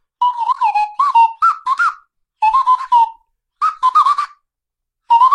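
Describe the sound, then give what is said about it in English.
A slide whistle toots short, choppy staccato notes in four quick bursts separated by pauses, the pitch wobbling slightly from note to note; loud, with no talking. “when you're like do do do do do do like with the slide whistle, so it's okay.”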